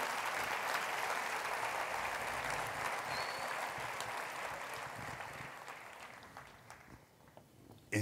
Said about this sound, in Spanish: Démosle fuerte las palmas al Señor porque